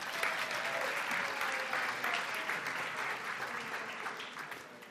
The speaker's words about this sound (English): Give him a round of applause for being brave.